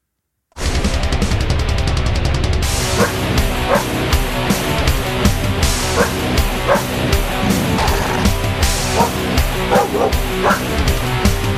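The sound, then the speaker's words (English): Loud, dense grindcore from a dog-fronted band with two dog vocalists: blasting drums and distorted guitars, and dogs barking and yipping in place of vocals, sharp barks repeating over the music throughout. “Just a little sample, just so you can understand what uh, a dog fronted. It's actually got two different vocalists. Uh, grindcore band sounds like.”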